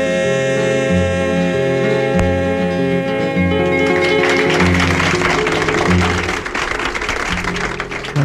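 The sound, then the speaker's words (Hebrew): A live 1971 Galei Tzahal concert recording of a soldiers' troupe, where sustained music gives way to a steady, crowded burst of audience applause that swells midway and continues to the end over lingering chords. “והנה, מחיאות הכפיים לצוות האמרנים, החיילים, מוחאים כפיים, 1971, הקלטה שלנו, גלי צה"ל, אני לא יודע אם השיר הזה הוקלט אי פעם, אבל אה, הם שרו אותו כאן אה, בהופעות.”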